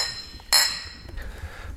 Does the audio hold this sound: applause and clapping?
no